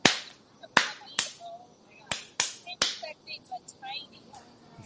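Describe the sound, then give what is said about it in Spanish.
A series of about seven sharp knocks, loud and irregularly spaced, like quick raps on a hard surface, imitating a toad knocking inside a coffin, with quiet background murmuring between them. “Y va a mirar y ve que anda un sapo adentro, golpeando así.”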